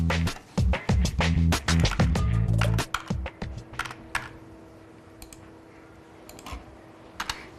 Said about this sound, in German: Fast alle Steuerformulare sind in Ihrem Computer gespeichert. Daten und Zahlen tippt sie gleich ein. Das spart Zeit.